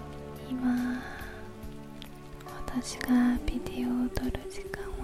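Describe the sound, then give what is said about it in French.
Steady rain patters and drips in a neon-lit alley, with sharp individual drops striking a hard surface over a low electrical hum. No one speaks. “Sous la pluie, dans une ruelle éclairée au néon, il y a une femme assise sur un tonneau.”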